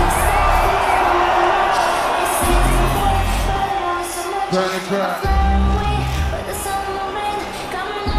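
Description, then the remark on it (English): A large festival crowd at Tomorrowland cheers and roars continuously for a DJ, with whoops and shouts rising over a loud, dense wash of noise and a deep rumbling low end throughout. “I would like y'all to make some noise for the one and only …!”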